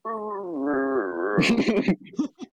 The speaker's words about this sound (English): I think that's Luke's dog.